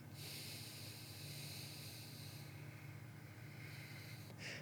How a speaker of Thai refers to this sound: สมมุติติ้งต่างว่าผมมีหลอดแล้วกัน ใช้ปากสี่วิ หายใจออกสี่วิทางจมูก